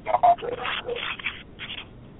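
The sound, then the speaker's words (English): A dog barks twice in quick succession, sharp, then scratchy rubbing and shuffling noises carry on at a lower level with no more barking. “and somebody's dogs are barking one in the middle of the Yeah, sorry, that's us.”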